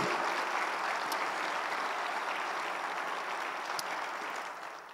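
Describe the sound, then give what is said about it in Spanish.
A church audience applauds for Jesus steadily, a dense wash of many hands clapping at once with no pauses, holding an even level before easing off slightly at the very end. “Vamos a dar un aplauso a Jesús porque Él nos abrió ese camino precioso.”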